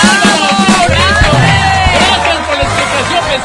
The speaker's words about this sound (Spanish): Nuestro participante puede y quiere así y lo siente así. Así que un aplauso para él, por favor.